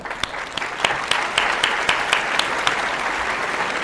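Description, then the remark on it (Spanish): An audience at a live show applauds a guest speaker as he is introduced, clapping steadily in a dense wash of many hands with a few sharper, louder claps standing out. The applause holds at an even level throughout, with no talking. “Un aplauso, por favor, para Fabricio.”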